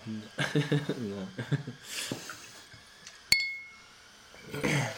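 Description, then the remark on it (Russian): After a stretch of conversation, a glass rings out with one sharp clink and a brief shimmering tone as a drink is poured into it, followed by quiet murmuring. “Ты продолжи мысль, я включу нашу постоянную рубрику «Наливаем в стакан».”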